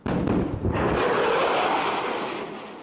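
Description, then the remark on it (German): A loud, deep boom bursts out at once, then spreads into a broad rolling rumble that slowly fades: a sonic boom made as a supersonic aircraft breaks the sound barrier. There are no voices. “Doch bevor sich Passagiere in die Flieger mit der langen Nase setzen können, muss ein Problem gelöst werden, der Überschallknall. Der entsteht, sobald das Flugzeug die Schallgrenze überwindet.”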